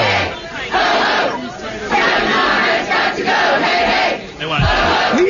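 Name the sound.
protest crowd chanting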